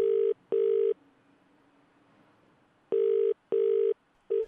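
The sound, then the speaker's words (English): A telephone ringback tone purrs in paired bursts on a call to a tow truck driver: two quick rings, a pause of a couple of seconds, then another double ring starting, clear and fairly loud over a faint line hiss. “We said, "Can you give him a phone call and give him the weirdest phone call he's ever had?"”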